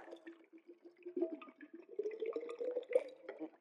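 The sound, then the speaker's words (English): Water pours steadily into a glass jar, a bubbling, gurgling stream with a rising pitch as it fills, for a few seconds. “Then in this jar, all I got it's just some water.”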